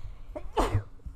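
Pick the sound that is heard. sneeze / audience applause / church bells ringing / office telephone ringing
sneeze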